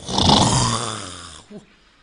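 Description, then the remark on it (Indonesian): A voice imitates the snoring of a santri (Islamic boarding-school student) with one long, harsh, rattling snore, which fades out and ends in a brief low vocal grunt. “Santri ini micek ngorok ibu antar.”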